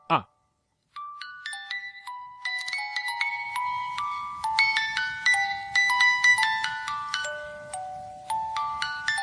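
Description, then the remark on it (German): After a short cranking click as it is wound, a wind-up toy bird with another bird strapped to its belly plays a tinkling music-box melody of bright plucked notes at a steady pace, with a faint mechanical whirr underneath. “dann finde ich mal raus, was für eine Melodie das ist.”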